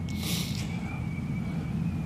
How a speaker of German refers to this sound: Schau mal, was da auf dem Rhein passiert. Da kommt schon wieder irgendein dicker Frachtkahn, das brummt dann so. Das müsst ihr euch jetzt auch nicht, nicht länger anhören als notwendig.